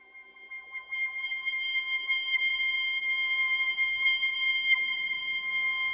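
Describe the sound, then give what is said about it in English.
A sustained, high note from a Hydrasynth synthesizer fed through a Phaseomatic tube phaser whose speed follows the played pitch, its tone sweeping repeatedly in quick whooshing cycles, heard alone and steady at moderate volume. “And you're going to notice that the higher up I play pitches, the faster the phase is going to move.”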